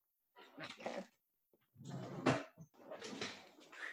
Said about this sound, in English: So I'm just getting my wand from my drawer in my altar.